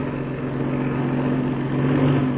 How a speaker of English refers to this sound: But, senor, this plane, he will hit our plane. There will be the collision. Well, it's too late to do anything now. After the pilot's on the ground, he'll see our ship. That is, when it gets close enough.